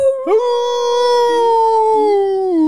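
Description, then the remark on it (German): A person imitates a wolf howl: one long, steady note that rises sharply at the start, then holds and slowly sinks in pitch for nearly three seconds, with no talking. “Genau, dann heulst du auch noch ein bisschen, ne?”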